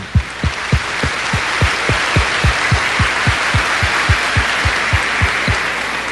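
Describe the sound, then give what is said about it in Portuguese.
A crowd applauds mothers steadily for about six seconds, a dense wash of clapping carried by a regular, evenly spaced rhythmic pulse, as if many hands beat together in time. No one speaks. “Mais aplauso para essas mães, minha gente.”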